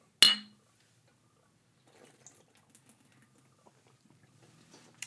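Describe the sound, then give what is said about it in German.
A single bright clink of glasses in a toast rings out and quickly fades, followed by quiet scattered clicks and faint liquid sounds. No one speaks. “hey, wir tun was dagegen. Genau. Prost. Prost.”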